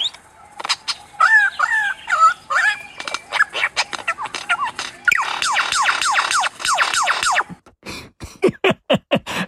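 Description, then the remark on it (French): Loud bird squawks and rooster-like calls pour out in a rapid, chaotic burst, overlapping harsh cries that keep rising and falling, then a few sharp separate calls at the end. “On va vous mettre, chers auditeurs et auditrices, des oiseaux rebelles parce que ça m'a fait rire.”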